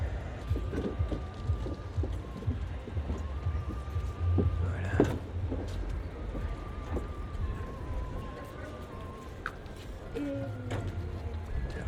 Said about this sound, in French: Ouh, il pleut. Ah bah oui, voilà. Ça, il pleut. Il fait pas beau. Il fait pas beau ce soir à Bruxelles.